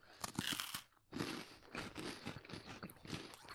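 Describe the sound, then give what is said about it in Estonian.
Crisp, repeated crunching of someone biting and chewing a vanilla and cream wafer, a steady run of dry crackly bites and chews with no talking. “aus vahvel. jah. vanill ja kreem on just vahel.”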